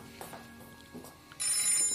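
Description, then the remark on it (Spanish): A telephone bell starts ringing abruptly after a quiet stretch with a few soft thumps, its bright, metallic trill sustained and fairly loud until the end. No one speaks. “La mujer deja caer el abrigo y se precipita hacia el auricular.”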